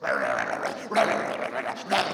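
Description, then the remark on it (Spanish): A human voice imitates music heard at a workshop that sounded like an angry dog, growling and snarling in rough, raspy bursts that swell about three times over a couple of seconds, fairly loud. “yo pensé que era un perro que estaba bravo allá y es la música que escuchan.”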